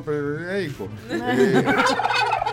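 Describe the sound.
A person imitates a turkey's gobble: a sustained vocal tone slides into a loud, rapid, warbling burst lasting a couple of seconds, with no ordinary speech.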